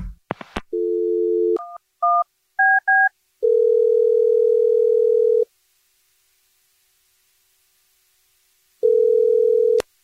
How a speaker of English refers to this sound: I'm going to dial the phone number right now.